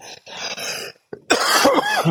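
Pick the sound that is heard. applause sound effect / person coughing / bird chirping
person coughing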